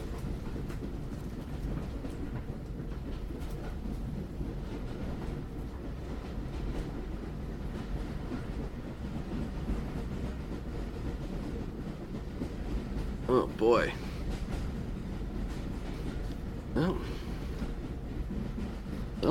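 A train to Pittsburgh rolls steadily along the rails with a continuous low, rumbling clatter from inside the carriage, broken near the end by a couple of brief high-pitched squeals.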